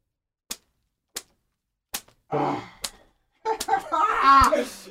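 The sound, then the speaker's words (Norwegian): Sharp hand slaps on a man's back ring out one after another with short pauses between them, starting gently after the back is stroked, followed by excited voices talking and laughing over a final smack. “Nå stryker han litt nedover ryggen. Gjør han litt klar for første klaske.”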